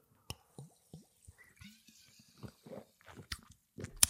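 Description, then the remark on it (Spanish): Quiet mouth and liquid sounds: a few wet clicks and small gulping swallows from someone taking a sip of water, ending with a sharp click, with no talking. “Y voy a hacer un paro dramático para beber agua para deciros, ojo.”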